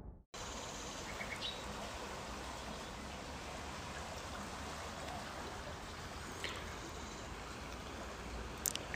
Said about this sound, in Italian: Mi stavo fermando ad ascoltare i suoni del fiume che adesso sembra, dopo le piogge dei giorni precedenti, ha un eh, volume un po' più consono diciamo, al periodo, è ancora molto basso diciamo